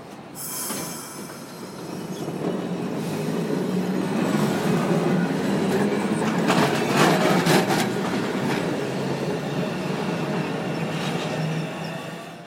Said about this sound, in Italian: Beh, facciamo passare il tram, partiamo e lo scopriamo insieme.